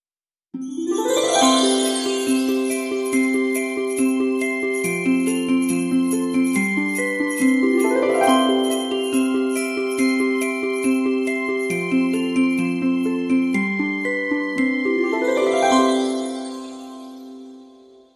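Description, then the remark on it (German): Christmas bells ring out in a bright, steady chime, their tinkling tones tumbling in a repeating melodic run three times before fading out. No voices are heard. “Ja, dann lass doch mal die Weihnachtsglocken läuten.”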